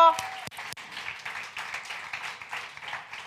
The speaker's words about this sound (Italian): Benvenuti, benvenuti eh, eh, un benvenuto speciale a chi è qui per la prima volta, vogliamo veramente fare un applauso di benvenuto.